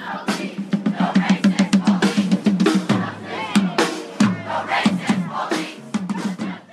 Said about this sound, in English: And they just were chanting to boycott Gibson's, and they had signs that said boycott Gibson's, we were racist.